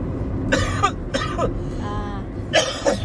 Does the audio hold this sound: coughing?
yes